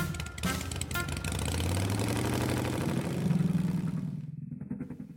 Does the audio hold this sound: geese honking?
no